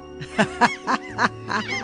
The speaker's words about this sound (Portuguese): Tem umas garças no fundo, olha lá. Opa, Gaivotas.